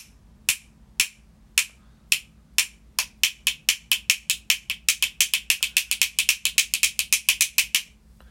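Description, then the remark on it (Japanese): Sharp, bright taps on the lid of an instant coffee jar, starting slow and sparse, then speeding into a rapid, even drumming run before stopping abruptly. Clear, with no voices. “で次はえー、インスタントコーヒーの瓶それは蓋はこんな音ですね”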